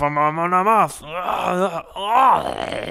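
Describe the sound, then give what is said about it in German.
A voice performs a drawn-out, exaggerated dying groan, wavering and falling in pitch over about three seconds with a brief gasp in the middle, loud. “Ja, du solltest Sounddesigner werden.”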